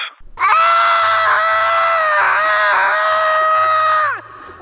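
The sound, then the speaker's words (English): A rabbit's death scream: one long, shrill, piercing cry held for about four seconds, loud, wavering slightly in pitch before cutting off abruptly, with no talking. “That hot toddy is a rabbit's death rattle.”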